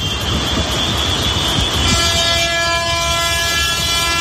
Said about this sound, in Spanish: Es el sonido de una larga columna de tractores accediendo por una importante avenida principal de Badajoz.